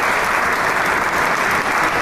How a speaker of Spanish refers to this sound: Sale una vez más el maestro para recibir el aplauso del público y agradecerle. Y es un concierto virtuoso, ¿eh?